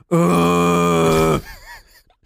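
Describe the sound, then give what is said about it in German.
A voice imitates a woman's labor moan: one long, loud, steady groaning tone held for over a second, then breaking off into a wavering, fading warble. “haben wir ja dann auch die Wehen dann noch von den anderen Frauen dann ge gehört, die ja dann da dann geboren haben.”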